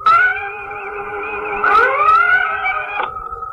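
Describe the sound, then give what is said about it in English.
A loud electronic red alert alarm, sounded as an unanswering fast-moving vessel closes at warp 4, blares with a steady, harmonically rich tone that swoops upward partway through, then holds before cutting to a lower hum. No voices. “They refuse to answer our hail. Still closing at warp 4. Sound red alert.”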